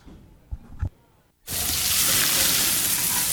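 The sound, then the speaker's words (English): A juicy, cheesy burger sizzles on a grill: after a quiet moment with two soft low thumps, a loud, bright, crackling hiss bursts in and holds steady to the end. “We know that juicy, cheesy, grilled to perfection burger sounds amazing, but it does sound like something is missing.”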